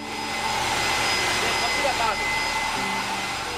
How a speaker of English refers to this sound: The plant uses steam from underground to generate power. I went inside one of the buildings where they had a turbine moving or spinning using the steam coming from underground. And it was spinning at a very high speed and it was incredibly loud.